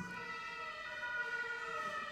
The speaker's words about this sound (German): Da geht der Alarm los.